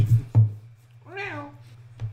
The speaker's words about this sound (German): Wir hatten übrigens ja. gerade draußen so eine Art Marderkampf oder was.